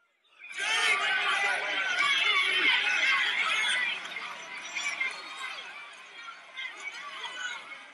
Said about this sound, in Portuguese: Ó. Não dá, né? Não dá pra ter tanta noção por causa do que a galera tá gritando.